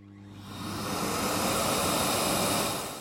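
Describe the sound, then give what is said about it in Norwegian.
A vacuum cleaner motor spins up and holds a loud, steady roar with a high whine running through it, continuing without a break. No one speaks. “Det som er fint for de som ønsker å bli kvitt sine hybelkaniner, er at hybelkaniner har en naturlig fiende, og det er støvsugeren.”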